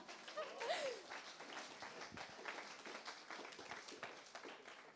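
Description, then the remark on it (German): An audience at a baptism service applauds five people who have decided to be baptised, a dense, steady patter of many hands clapping for several seconds, with a brief murmur of voices mixed in near the start. “Und dann gibt es, da darf man schon mal klatschen.”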